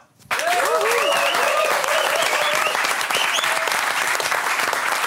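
A sudden burst of loud audience applause begins after a brief quiet moment and holds steady, dense clapping with some whoops and cheering voices mixed in.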